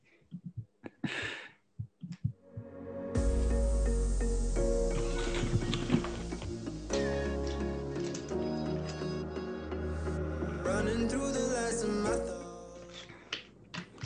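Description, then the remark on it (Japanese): A few crisp crunches of someone chewing kaki-no-tane rice crackers and peanuts in the opening seconds, then a loud burst of music comes in and carries on to the end. “僕があの柿ピン食べた音すんげえ入ってたね今恥ずかしいぐらいちょっとちょっとねここ最近あの物食うっていうのがちょっと多いですけどね”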